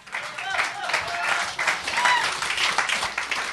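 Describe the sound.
A crowd applauds steadily, dense overlapping claps forming a sustained rustling wash with a few brief cheers or voices mixed in, holding fairly even loudness throughout.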